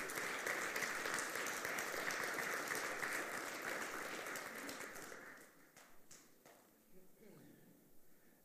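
A church audience breaks into loud, dense applause for God that holds steady for about five seconds, then thins out into a few scattered, fading claps.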